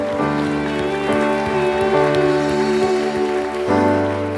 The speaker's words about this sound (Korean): 우리 하나님께 감사와 영광의 박수 올려드립시다 크게 열라 말씀하신 하나님께요 더 영광과 감사의 박수요